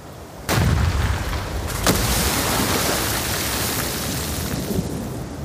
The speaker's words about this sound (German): Dann gibt es einen Knall und schäumendes Wasser.